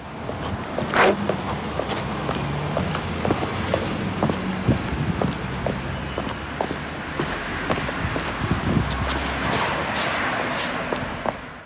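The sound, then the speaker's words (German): Footsteps in sneakers crunch through dry leaves on a sidewalk, played in reverse, a steady run of rustling steps with a low rumble of traffic behind them and no voices. “Und zwar bin ich da mit ganz normalen Sneakerschuhen auf dem Gehweg gelaufen.”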